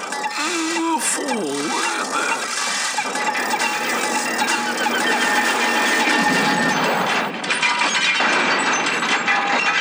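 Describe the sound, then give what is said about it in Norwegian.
A loud, drawn-out fart sound effect, buzzy and rattling, with a few wavering squeaky pitches near the start before it settles into a sustained, raspy sputter that fills the whole stretch. “Jeg følte det var passende at uh, den siste kortfilmen vi fikk se Og Vi mangler jo den ene, at den slutter med prompehumor.”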